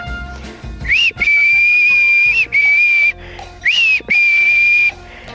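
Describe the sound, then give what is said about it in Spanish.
Loud whistle calling a dog to come, practised as a recall exercise: a short rising chirp, then a long steady note and a shorter one, repeated twice. No one speaks. “Y ahora sí, manos a la obra, a practicar este ejercicio que es muy fácil y muy útil para que tu peludo venga cada vez que silbas.”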